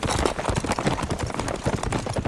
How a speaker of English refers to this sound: Wow, these horses really are fast.